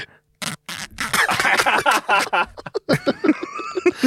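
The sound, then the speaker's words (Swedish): A small plastic snus tin lid is twisted back and forth, making a quick run of scratchy clicks and grinding rasps in irregular bursts. Soft chuckling seems mixed in. “Och så här, när han tar locket på snusdosan och snurrar den fram och tillbaka så att det låter lite grann.”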